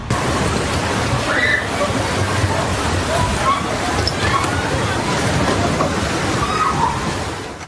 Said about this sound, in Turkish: Sonrasında deniz yükselmeye başladı. Seferihisar Sığacık halkı sarsıntının şokunu atlatamadan bu kez tsunami ile karşı karşıya kaldılar. Seferihisar Sığacık'ta su taştı. Önce sokaklar, caddeler sular altında kaldı.